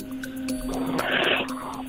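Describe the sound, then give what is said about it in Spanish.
A person's voice imitates a wolf howl with one long, steady, moderately loud tone held for about two seconds, a breathy rush of air swelling through the middle. “El, lobo. ¿Cómo hace el lobo?”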